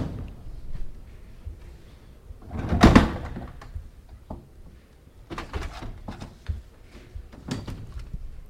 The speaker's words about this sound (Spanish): Se abre una primera puerta, se abren las puertas de la parroquia de San Isidoro, porque tiene que entrar la hermandad tras realizar su estación de penitencia.